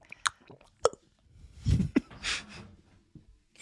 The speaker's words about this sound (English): Let me drink some of my beverage.